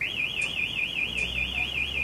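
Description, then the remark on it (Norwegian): A fire station callout alarm sounds continuously, calling crews out to an alarm at a home in Røa, a high electronic tone warbling rapidly up and down at a steady pace, loud and unbroken with no voices over it. “Det virker som om eh, alarmen har gått inn igjen på Røa-knekken nummer fem.”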